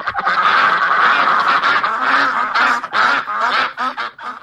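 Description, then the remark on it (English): Loud, continuous duck quacking played on an arena jumbotron during the first intermission of an Anaheim versus San Jose hockey game, with raspy calls overlapping in a dense, busy stretch. The quacks come thick and fast, some louder bursts standing out, before the sound thins near the end. “let's get to what's quacking here”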